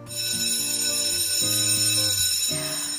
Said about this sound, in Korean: 소방 점검을 시작하더군요. 생각보다 소리가 좀 요란했습니다. 화재가 발생했습니다. 밖으로 대피하시기 바랍니다. 이런 방송도 나오더라고요.